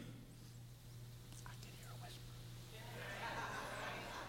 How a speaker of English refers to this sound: Oh, you hard of hearing folks didn't hear me. I said, I can hear a whisper.